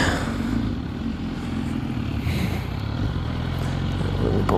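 vehicle, motorcycle engine

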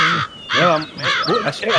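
bird, bird of prey call

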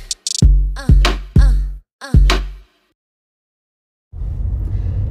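vehicle, car interior rumble

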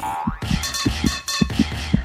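sound effect, irregular heartbeat

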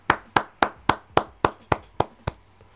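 human body sound, clapping hands

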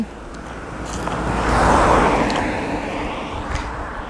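vehicle, car passing by

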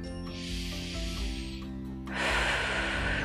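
human body sound, deep breath

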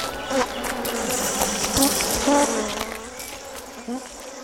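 insect, bees buzzing

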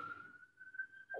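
animal, dog howling

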